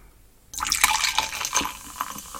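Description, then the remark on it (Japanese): A drink is poured from a 350 ml can into a glass, starting abruptly after a short quiet pause with a steady, splashing, fizzy gurgle that carries on with no voices. “これさ、缶1本開けちゃったらさ、全部飲まなきゃいけないじゃん。”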